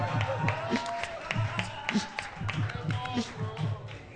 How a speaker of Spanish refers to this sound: Aplauso.